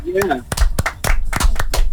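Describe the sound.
Half a dozen slow, unhurried hand claps, sharp and fairly loud, spaced roughly a third of a second apart, following a brief voice at the start, applauding a point scored for a correct quiz answer.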